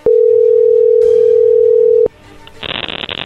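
A loud, steady telephone dial tone drones for about two seconds while a call is redialed after a bad connection with poor signal, bracketed by sharp clicks, then cuts off into a burst of rough, crackly line noise.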